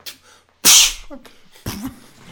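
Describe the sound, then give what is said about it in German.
A voice imitates a fish cake exploding in a deep fryer: a sudden loud hissing blast, then a softer sputtering tail and a second shorter burst, all mouth-made. “also eine Fischfrikadelle explodiert in der Fritteuse.”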